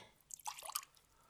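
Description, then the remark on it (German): A few quick, trickling splashes of water being poured from a glass of water into an empty glass, faint and brief, clustered together in under a second against a quiet background with no talking. “Und sage ich zu ihm, nimm ein Glas mit Wasser und das andere Glas, was leer ist und gieß mal rüber, einfach rüber.”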